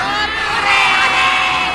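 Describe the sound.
The Kurawa cheer and whoop loudly after Karna is made adipati of Awangga, a dense, continuous roar of many voices, swelling slightly partway through and staying steady to the end.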